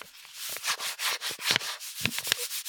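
Paper rubs and scrapes in quick, uneven strokes as a found-sound element in a music track, a dry papery swishing that pulses irregularly, moderately loud, with no voices.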